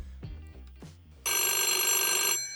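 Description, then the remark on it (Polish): A loud telephone bell rings in one sustained burst of about a second, preceded by a few short low musical tones and swooshes, part of an old Studenckie Radio Żak jingle that is no longer aired regularly. “Odbierzcie ten telefon.”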